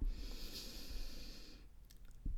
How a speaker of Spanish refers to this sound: Así que vamos a activar este chakra y te voy a pedir si te es posible cerrar los ojos, tomar una respiración profunda, inhala